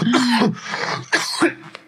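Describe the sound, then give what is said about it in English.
A man lets out a short run of raspy, exaggerated coughs, some drawn out and voiced, fairly loud, with a final sharp hack at the very end. “He's coughing a little bit.”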